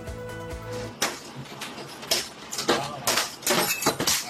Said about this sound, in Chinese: 一阵乒乒乓乓，玻璃都被砸碎，宛如枪林弹雨的场面。原来是老天爷降下冰雹。